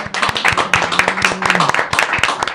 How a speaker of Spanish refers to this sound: Un aplauso, por favor.